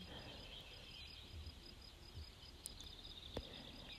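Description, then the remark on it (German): A quiet outdoor ambience of insects humming in a steady, pulsing drone, with a few faint bird chirps breaking through now and then. No voices are present. “Du hörst das Summen und das Zwitschern der Vögel.”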